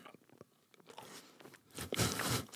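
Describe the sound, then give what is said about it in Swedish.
Someone bites into a cream-filled frozen dessert resembling an ice-cream stick: a few soft, scattered crunches, then a louder, grinding crunch near the end, with no talking. “som älskar grädde kommer att ta en tugga här.”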